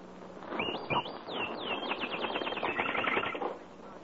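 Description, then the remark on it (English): Birdsong in a backyard: a bird sings a series of bright, sweeping whistles followed by a fast run of repeated chirps, and its mate joins in, clear, no talking. “And out in the backyard, a bird in song is joined by its mate.”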